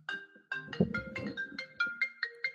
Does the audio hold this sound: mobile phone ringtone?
yes